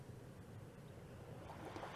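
A steady, rushing wash of ocean waves at the beach in the morning, fairly loud, with a low rumble and wind-like hiss that swells slightly toward the end. No one speaks.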